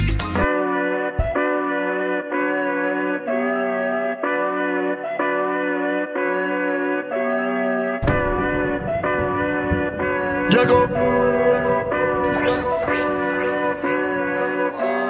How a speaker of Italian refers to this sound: alla fine ho scelto di mettere … e basta. Let's go, ascoltiamocela e balliamo